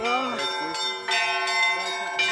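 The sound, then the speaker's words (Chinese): Church bells ring in Moscow on the snowy night before Russian Orthodox Epiphany, at minus five degrees Celsius, as believers immerse themselves in icy water. Quick overlapping strikes make a bright ringing texture with sustained metallic overtones and several fresh clangs punctuating the steady, fairly loud chime. “伴随着钟声，教徒们竟顶着零下五度的超低温，全身浸在冰水里，即使已经冻到发抖，也丝毫没有畏惧。”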